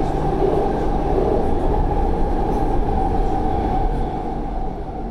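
A metro carriage rumbles steadily in motion, a dense low roar with a faint hum running through it. It stays loud and even the whole time, with no voices.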